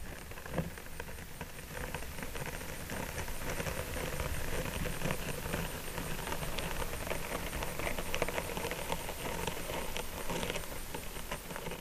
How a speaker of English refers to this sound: I believe this is the sound of a caterpillar walking um, along the edge of a leaf.